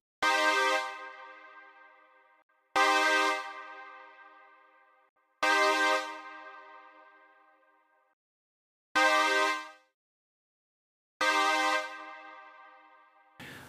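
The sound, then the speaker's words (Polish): Five punchy synth stabs, each a bright, harmonically rich chord hit with a sharp attack from a punchy volume envelope and a shallow filter envelope, decaying over a couple of seconds, with a wide chorus shimmer and a very subtle reverb tail, separated by silence. “Do tego płytka obwiednia filtracji, żeby nam się dźwięk nie rozstroił, i dająca kopa obwiednia głośności, a potem to już klasyka chorus i bardzo, bardzo subtelny pogłos.”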